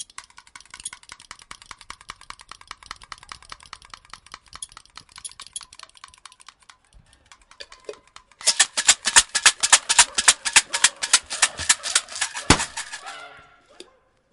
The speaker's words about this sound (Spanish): A ver, vamos a tener que hacer los efectos de sonido de una manera casera. Con la boca, un globo, un alfiler, dos abrochadoras, encendedor, regla de madera.